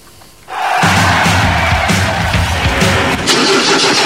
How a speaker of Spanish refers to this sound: ¿Y arranca o no arranca? Siempre arranca con bujía Hescher para motores diésel.